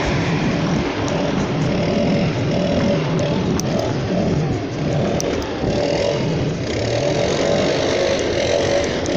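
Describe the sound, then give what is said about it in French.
A loud, steady engine drone fills the whole stretch, a small motor whining continuously from leaf blowers clearing autumn leaves outdoors, with slight rises in pitch and no voices. “Désolé, euh, c'est l'automne. Il y a des feuilles, des souffleuses.”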